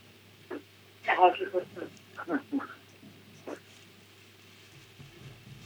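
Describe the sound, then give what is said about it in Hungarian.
Tinny, muffled voice fragments come over a caller's mobile phone line, echoed by a delayed radio broadcast of the same talk, in short uneven bursts over a low steady hum. “Kapcsolja ki egy kicsit a rádiót, legyen olyan kedves.”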